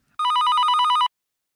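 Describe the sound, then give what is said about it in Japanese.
A telephone bell rings in one continuous burst of rapid, trilling pulses lasting nearly a second, loud, then cuts off abruptly into silence, introducing a voicemail message left by a shop. No voices are present. “今日も留守番電話が入ってますこの番組ではお店の方からのメッセージが留守番電話という形で届きますそれでは聞いてみましょう”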